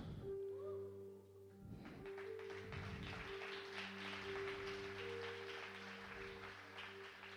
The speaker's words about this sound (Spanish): No se preocupe, lo que, lo que dicen, ¿por qué esta gente aplaudieron? Porque el pastor actuó.